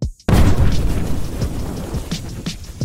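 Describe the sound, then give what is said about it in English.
After a brief silence, a sudden loud blast erupts into a thick, sustained roar of deep rumbling and crackling, like a volcanic eruption, with sharp bursts popping through the din. “B, a massive volcanic eruption?”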